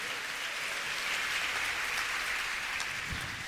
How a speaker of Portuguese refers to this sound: Vamos dar uma salva de palmas por isso. Arrancar um glória a Deus por isso.